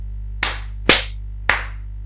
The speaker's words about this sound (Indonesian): Nah, eh tepuk tangan dulu, tepuk tangan dulu. Ayo.